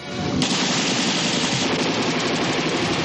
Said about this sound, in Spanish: Un alemán herido se le acerca tambaleante con la metralleta en la mano. Brown queda bloqueado. Papadimos dispara.